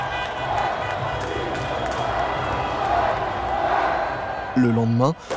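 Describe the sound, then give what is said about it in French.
A dense crowd of French people celebrating France's triumph roars continuously, parading through the streets of the capital and up the Champs-Élysées, a wash of many voices cheering and shouting together, with a horn-like tone blaring near the end. “Les Français vont faire la fête toute la nuit, défilant dans les rues de la capitale et remontant en foule compacte les Champs-Élysées.”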